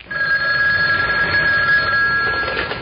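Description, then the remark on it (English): A telephone rings in one continuous, unbroken burst, a steady trilling tone held over a hissy, muffled background, with no one speaking. It is a collect call from Midland City, ringing somewhere out over the Atlantic Ocean. “I have a collect call from Midland City for Chicken Man.”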